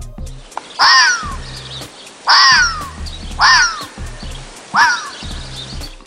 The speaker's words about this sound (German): Nein, aber der Fuchs bellt, heult und jault, ähnlich wie Hunde. Das hört sich ungefähr so an.